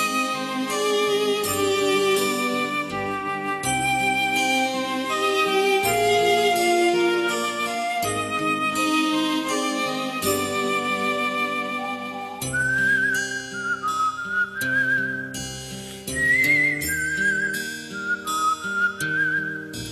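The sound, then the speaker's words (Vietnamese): Someone whistles a melody by mouth, a whistled arrangement of a classic song. The clear, sliding whistle rises out over a full instrumental backing track, becoming especially prominent in the second half. “Rất nhiều bài hát kinh điển lưu truyền rộng rãi đã được cải biên thành những bản nhạc sáo miệng rất hấp dẫn.”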